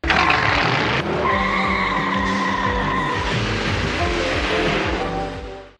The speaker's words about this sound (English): So they all jump in their vehicles and burn rubber. I like the ramped up sound, so to speak, of uh, Thunderhawk.